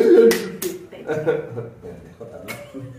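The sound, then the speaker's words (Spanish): A few sharp hand claps, made in imitation of a seal, land irregularly, two in quick succession and one more a moment later, amid voices and chuckling sounds. “Yo soy aplauso”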